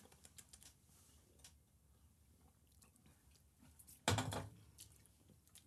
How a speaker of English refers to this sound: Do we want to do a clinky clink yeah let's clink machink clink.